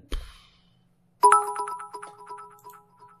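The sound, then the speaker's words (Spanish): A bright, electronic livestream alert chime for a donation of 100 cheers plays a quick cascade of ringing tones that sparkle and fade over a couple of seconds, preceded by a brief low thump, with no talking. “Por esos 100 cheers que suenan ahora. Antes no sonaban, pero ahora suenan.”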